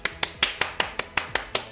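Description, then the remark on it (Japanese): A quick run of about ten sharp hand claps, made by accident, in a steady, fast rhythm, each crisp and snappy with a brief decay, with no voices. “あ、なんか間違って拍手しちゃいましたが”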